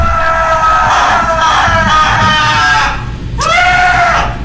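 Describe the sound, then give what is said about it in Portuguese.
A man yells loudly and continuously while running through a radio station, his strained voice wavering, then breaks briefly before letting out another rising and falling shout. “Tá correndo na rádio e gritando. Tá correndo e gritando.”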